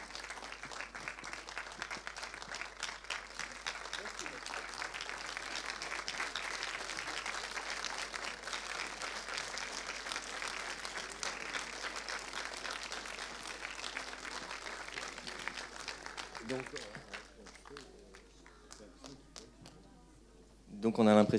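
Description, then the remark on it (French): Farewell applause from a crowd: dense, steady clapping sustained for about sixteen seconds, then thinning out into scattered claps before a sudden loud burst at the very end. “Ça, c'est les applaudissements des adieux.”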